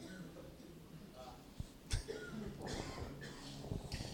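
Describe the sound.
A few rough coughs burst out, a sharp one followed by a cluster of hacking, over a low background murmur of voices.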